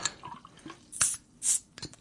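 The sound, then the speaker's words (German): Quiet liquid sounds with a few short splashy trickles and drips, uneven, like a drink being poured into a glass in small bursts. No one speaks. “Du kannst ja selber einschenken.”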